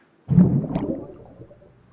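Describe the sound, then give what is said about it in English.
A cannonball plunge into a friend's swimming pool, recorded with an underwater mic: a sudden, heavy muffled thump followed by a rush of churning bubbles that gradually fades over a second or so. “performed a cannonball or boba”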